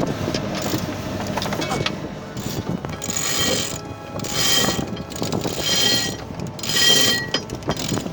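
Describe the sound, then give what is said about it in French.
A mizzen sail (artimon) being hoisted: pulleys squeal and rope ratchets through blocks in repeated surges, rising and falling in bursts of bright, rasping mechanical clicking over a low rumble. “Bon ben c'est bon, on a le temps de hisser l'artimo avant de...”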